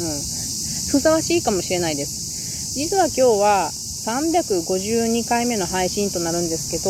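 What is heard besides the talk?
cicadas chirping loudly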